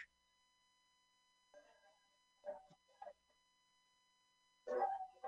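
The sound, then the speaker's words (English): A dog in a film scene with Phyllis Diller, sicced on someone, barks a few times in short, irregular bursts, ending with a louder volley. A faint steady hum sits underneath, and no one speaks. “So this is how the dog gets down into the morgue.”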